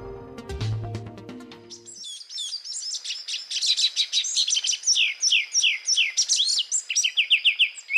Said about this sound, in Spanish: El que oímos es un pájaro de unos 18 centímetros de alto que en el Valle del Cauca llaman guayabero ocre y en otros países de los Andes le dicen tángara pechiocre.